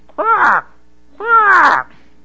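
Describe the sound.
Two harsh, raspy crow caws ring out one after the other, each about half a second long, with a short pause between them. The second call is slightly longer and louder.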